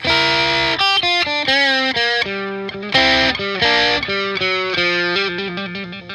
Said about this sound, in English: So a lot of people will mic guitar amplifiers by putting the mic right up on it so you don't get any reverb except for maybe if the amp itself has like reverb effect built into it.